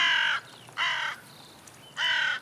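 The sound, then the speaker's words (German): Three harsh, raspy crow caws ring out loudly, each about half a second long, separated by short pauses over a quiet background with no talking, as crows fly onto a power line in the evening to sleep side by side. “Die Krähen fliegen die Stromleitung an, um nebeneinander zu schlafen.”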